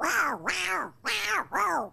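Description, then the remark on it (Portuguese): A person's voice mimics a cat, producing four drawn-out, rising-and-falling meows in close succession, loud, with no other talking. “Imitando o gato.”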